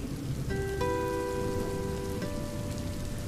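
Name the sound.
rain falling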